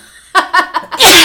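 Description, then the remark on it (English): A single loud sneeze from a man, brought on by shock: three short rhythmic catches of breath build up before an explosive, hissing burst that carries to the end. “Wow shocked him so badly he had to sneeze.”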